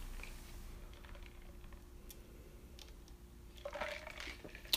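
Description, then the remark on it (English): A quiet sip from a drink with a brief slurping, liquid sound near the end, after a few soft clicks and rustles. No one speaks. “I was taking a little sip.”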